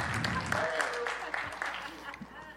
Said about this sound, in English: The one clap we get. It's because the heat's on.